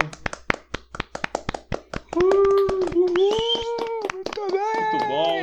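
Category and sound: crowd, round of applause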